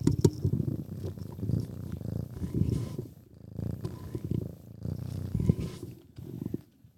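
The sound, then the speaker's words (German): A cat purrs steadily, a low rumbling drone pulsing in slow waves for several seconds, with no talking over it. “Weil die Katzen nehmen immer mit dem Podcast auf.”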